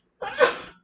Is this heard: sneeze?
yes